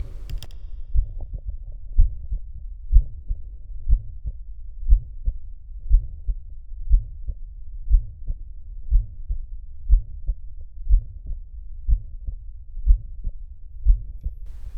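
Steady heartbeat, about one beat per second, each beat carrying a low, musical, vibrating systolic murmur (Still's murmur) in a 77-year-old female patient with severe hypertension, blood pressure 265/100; no voices, just the repeating thumps and soft hum.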